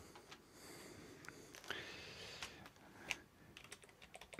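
Quiet, irregular clicking of keys on a computer keyboard, a steady patter of taps with a few sharper strokes, with no voices.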